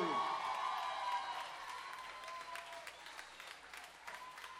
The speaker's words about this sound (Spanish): Un aplauso para Noé Sánchez en la batería, siempre fiel.